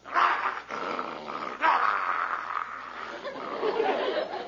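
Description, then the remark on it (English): A German shepherd growls steadily and fairly loud for several seconds, a continuous rough rumble that surges and eases without pause. No one speaks. “And besides, these German shepherds is used to handling sheep.”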